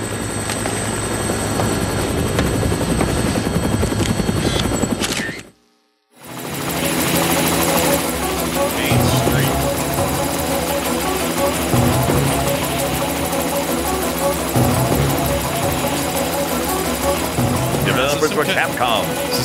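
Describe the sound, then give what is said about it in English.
A helicopter's rotor thumps steadily and loudly as it flies overhead, a dense continuous chop with engine whine, briefly cutting out to silence before resuming at full strength. “Looks like taking a helicopter was the way to go.”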